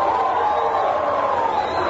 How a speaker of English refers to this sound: A lot of people are clapping in the, in, and I know it's poor audio, and I mm-hmm. apologize mm-hmm. for that, folks, but it's, it's kind of making a point.